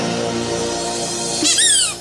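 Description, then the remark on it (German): A rubber duck gives a single loud, high squeak near the end, sliding downward in pitch, after a steady low background hum. “mein Quietscheentchen.”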